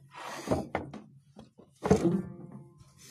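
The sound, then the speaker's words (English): A piano lid is lifted up, with several dull wooden thunks and bumps, a heavier clunk near the end, and faint creaking between them. “So let's lift this right up.”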